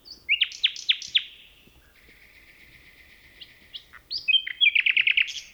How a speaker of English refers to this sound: Phil Riddett recorded these two nightingales in a forest near Kent, England.